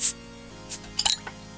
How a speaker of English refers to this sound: Cheers. Cheers. Alright, ladies and gentlemen, the sound you just heard was us cracking a James Squire Swindler.